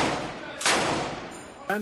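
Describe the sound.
Powerful explosions in clashes between the Israeli army and Hamas around the Al-Shifa hospital in the Gaza Strip, heard as rough, rumbling bursts with a sharper, louder blast midway, and a voice cutting in briefly at the very end.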